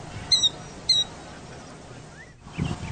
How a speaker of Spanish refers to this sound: Y se le llama quildío por el, por el canto que hace, el, llamado. Y yo lo he visto allá por las tierras altas de los altos de Chiapas, que hay muchos campos. Allá, allá lo he visto y lo he escuchado.